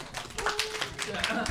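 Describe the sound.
An audience at the Wuming comedy club claps in a dense, uneven patter of sharp hand claps lasting about a second and a half, with voices murmuring underneath.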